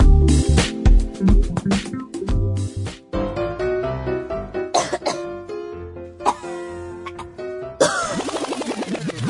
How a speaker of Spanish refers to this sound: Uy, no, no, no, no tos así. Oiga, cúbrase.